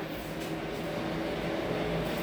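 A motorcycle engine drones outside, heard from a back balcony, a steady low humming rumble with faint tonal bands, holding an even loudness over a background hiss of strong wind and rain with no voices.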